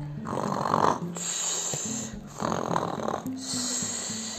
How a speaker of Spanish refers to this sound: Satisfecho después de saciar su apetito, él lobo volvió a acostarse y se durmió al momento. Comenzó a roncar como solo los lobos saben hacerlo.